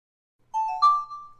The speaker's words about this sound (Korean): 지아와 함께 급식실을 나오는데 메시지 알림이 울렸다.